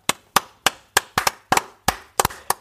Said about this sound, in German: Natürlich Glückwunsch an uns vier aus der Redaktion, aber vor allem erstmal, lass uns mal laut in die Hände klatschen für den Nager